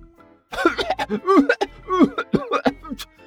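A man coughs repeatedly in a rapid string of harsh, voiced bursts, loud and uneven, with short catches of breath between them and no other sound, while pushing a pile of dirt into a courtyard.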